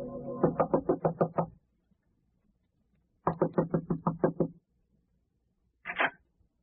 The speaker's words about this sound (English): Who is it? I must have imagined someone knocked. My nerves are playing tricks on me.